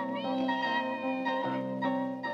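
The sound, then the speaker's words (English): A cat meows in a sustained, drawn-out tone with a few wavering rises, loud, with no voices around it; a film scene outdoors with the cat in a doorway. “And there's a body in shadow, and the cat meows.”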